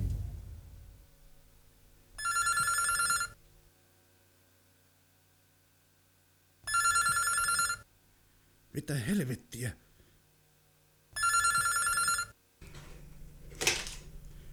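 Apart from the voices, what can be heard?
telephone ringing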